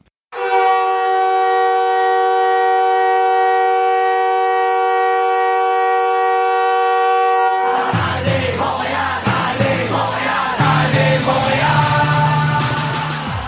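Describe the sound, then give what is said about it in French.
A loud, sustained hockey goal horn, the sound of a yacht horn sounded in the Chicago Stadium when the Chicago Blackhawks score, blares steadily for several seconds, then a roaring arena crowd erupts with cheering and music as the horn fades into the noise. “il reprend tout simplement le bruit du klaxon de son yacht qui va retentir dans tout le Chicago Stadium”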